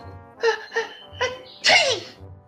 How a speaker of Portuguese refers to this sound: ela espirra o pó.